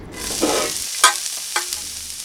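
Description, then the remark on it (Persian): Meat and onions sizzle and fry in a pan with a steady hiss, while a utensil scrapes and stirs through them in a couple of sharp strokes; the meat is browned on both sides and the onions are turning golden. “خب حالا همش میزنم تفت میدم همه چی رو با هم دو طرف گوش سرخ شده تغییر رنگ داده پیازام هم داره کاملا طلایی میشه”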